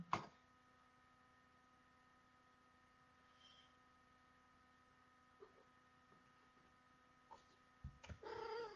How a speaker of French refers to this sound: Voilà, vous avez la visite du petit chat qui est abandonné, que j'ai recueilli.